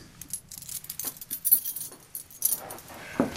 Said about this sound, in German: Gegenüber steht ein großer brauner Schubladenschrank. Den hat er sich auch ganz speziell anfertigen lassen. Und ich möchte den auch mal öffnen.